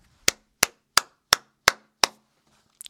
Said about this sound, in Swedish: Inte pampigt med bara en applåd, men det är så applåder låter 2020, eller hur? För vi samlas ju inte flera stycken på samma plats.